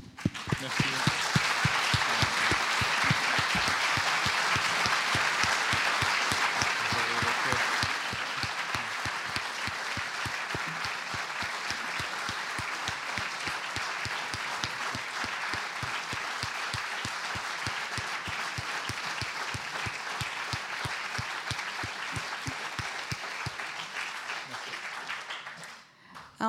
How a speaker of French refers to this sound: Merci, on vous applaudit encore.